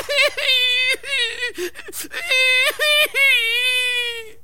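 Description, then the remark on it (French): A voice imitates a child crying loudly after being bitten on the arm: several drawn-out, wavering wails, broken by short sobbing gasps, ending in one long sustained howl. “Maurice pleure très fort.”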